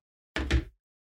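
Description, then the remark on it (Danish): Two quick knocks on the glass back of a Samsung Ultra phone, fairly loud, giving short hard taps with no talking. “På en øh, Ultra er det i glas.”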